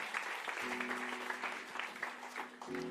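Steady audience applause fills the room, a dense wash of many hands clapping at once, with a faint sustained tone humming underneath.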